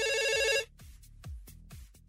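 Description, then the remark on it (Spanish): A telephone rings with a bright, warbling electronic trill for about half a second, then cuts off, leaving a few soft low thumps. No one speaks. “¿Conejo? El teléfono conejo.”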